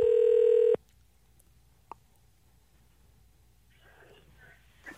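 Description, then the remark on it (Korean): A loud, steady telephone tone holds for under a second and cuts off, followed by a single click and then faint, muffled line noise, as a radio DJ places a phone call to a listener. “자, 한번 전화 한번 걸어보겠습니다.”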